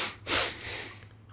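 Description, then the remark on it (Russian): Two quick breaths drawn in one after the other, demonstrating a double-inhale breathing technique used in diving to save air, airy and hissing, the first sharper and louder, the second softer and longer, with no talking. “ты можешь два раза вдыхать и два раза выдыхать.”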